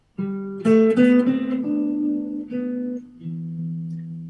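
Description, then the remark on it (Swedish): A short guitar melody picked on the strings, using the eighth fret of the B string, the eleventh fret of the G string and the open E string: about seven ringing notes that step up and then settle lower, each one sustaining into the next at a steady, moderate volume with no talking. “Fiss, yeah elfte bandet på G-strängen och sen lös Just E.”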